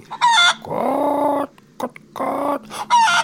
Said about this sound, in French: Mais on dirait le bruit d'une poule. Mais oui, il y avait une poule non loin.